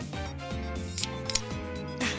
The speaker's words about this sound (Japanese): 缶はね開けるのが楽でいいね